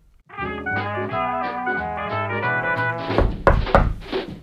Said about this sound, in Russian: Три дня спустя раздался стук в дверь.